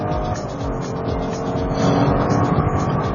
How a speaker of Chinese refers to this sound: 这个时候我们油门到底试一下，哇